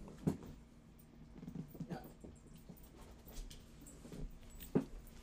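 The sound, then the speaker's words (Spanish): A small pet dog whimpers and whines softly, a thin drawn-out tone with a couple of brief sharper bursts near the start and end, with no talking. “Disculpen que tengo también aquí eh, a mi perrito, mi compañía conmigo.”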